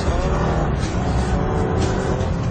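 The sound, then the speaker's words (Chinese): A red motorcycle's engine roars loudly and steadily for a couple of seconds as it is ridden fast through the streets, a dense rumbling growl with a raspy edge and no voices over it. “只要是一听到突突突的摩托车声，大家就知道一定是大灰狼来了。”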